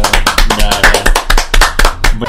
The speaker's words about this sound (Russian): когда хла- хлопки пиздец такой творится в подкасте. Не надо хлопать. Вырежем.